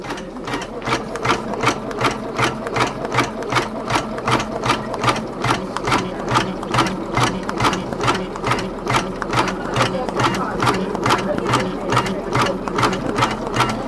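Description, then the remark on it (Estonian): A sewing machine runs steadily, its needle stitching in a fast, even rhythm of sharp clicks over a mechanical whir, fairly loud and with no voices throughout, stitching closed the holes in a small girl's hat. “ta tikib, ta äh, tikib ise. aga ta räägib endaga, et tikib, tikib, tikib.”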